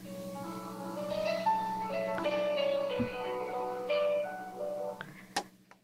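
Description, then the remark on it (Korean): A phone call being placed rings through with a tinny, melodic ringback tune playing over a steady line hum, no voices, ending in a couple of sharp clicks as the call connects. “그러면 전화 연결을 한번 시도해 볼까요?”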